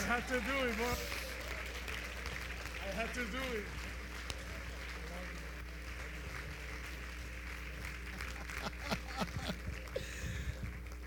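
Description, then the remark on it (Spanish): A standing audience applauds to welcome a visiting evangelist, in a steady, dense wash of clapping that carries on throughout, with voices calling out and talking over it, especially near the start. “Fuerte ese aplauso para Jesús.”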